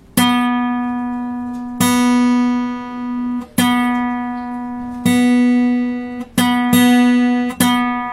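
A guitar's third string, fretted at the fourth fret, is plucked about seven times while being tuned against the open second string, each loud, bright mid-pitched note ringing and slowly fading before the next, a couple in quick succession near the end.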